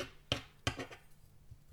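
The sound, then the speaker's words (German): A knife chops spring onions on a cutting board for vegetarian stuffed peppers: two crisp strikes a moment apart, followed by a few softer, quieter taps. No one speaks. “Das heißt, ich schneide gerade die Frühlingszwiebeln klein.”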